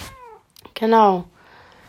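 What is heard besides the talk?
cat meowing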